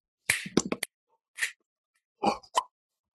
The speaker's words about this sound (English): Instead of using drums and percussion and trumpets or whatever, I tried to capture that quirky New York energy using digital samples of finger snaps, tongue, lip noises to accompany him. Kind of like this.